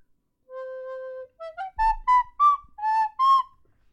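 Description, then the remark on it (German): A short whistled jingle melody: one long held note, then a quick run of rising notes and several bright, evenly spaced notes, clear with no talking. “Ich finde, du könntest die Melodie auch so ein bisschen anpassen.”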